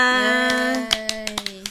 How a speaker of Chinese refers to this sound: 不知不觉我们的 podcast 就来到了第十九集，给自己一个掌声。